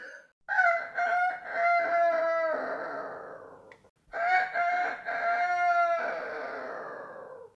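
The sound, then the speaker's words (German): A rooster crows loudly twice in a row, each long, harmonically rich cock-a-doodle-doo rising and then trailing off, with no one talking. “Nun schrei ich aus vollem Hals, solange ich noch kann.”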